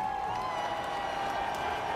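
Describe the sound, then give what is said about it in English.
A simulated stadium crowd played through a crowd simulation at about 110 decibels: a dense, steady roar of cheering, loud and unbroken for the full two seconds, with a faint sustained tone running through the wash of noise. “Yep, that's our crowd simulation.”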